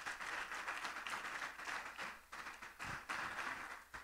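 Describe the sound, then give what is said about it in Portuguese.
An audience of believers gives a strong round of applause to the Messiah. The applause is loud and steady, a dense wash of many hands clapping that holds throughout with slight swells and dips in intensity. “Só os que creem dêem um aplauso bem forte ao Messias.”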